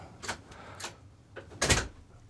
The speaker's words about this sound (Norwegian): kakke på døra her, så ja.